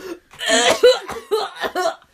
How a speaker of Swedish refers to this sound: För jag tycker det är så jobbigt att, att hosta så intensivt inför andra. Jag tycker det känns lite ofräscht när jag gör det. Eller det känns som att andra ska tycka att jag är ofräsch.